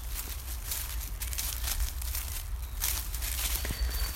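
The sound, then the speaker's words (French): Steady footsteps crunch and crackle through dry fallen autumn leaves on a walk in a forest, a continuous rustling shuffle, with a faint low rumble underneath and no one speaking. “En ce moment, on entend encore les feuilles mortes d'automne craquer et se froisser sous les pieds.”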